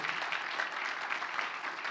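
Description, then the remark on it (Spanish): A church audience applauds the Lord steadily, a dense wash of many hands clapping at once that holds at an even level throughout, with no voices standing out. “Den fuerte aplauso al Señor por ahí”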